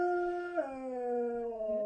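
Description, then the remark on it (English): A dog named Lulu howls in one long, steady, tuneful note that dips lower partway through and holds there, clear, with no other sounds around it. “That was not my dad, but that was Lulu, uh, the wolf.”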